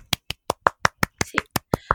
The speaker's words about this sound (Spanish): ¿Qué opináis? Estoy aplaudiendo.